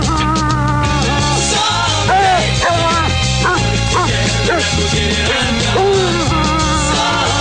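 A dog howls and yips along to loud music, its wavering, sliding howls rising and falling over a steady band-backed song with vocals throughout.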